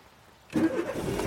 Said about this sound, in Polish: odpalenie silnika i jadę w drogę.